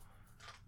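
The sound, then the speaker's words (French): A dog crunches dry kibble, a brief, faint burst of crisp chewing crackle over a low background hum, with no talking. “si vous entendez des cris crac-croc, c'est le chien qui est en train de manger ses croquettes, qui a décidé que c'était un bon moment pour manger ses croquettes.”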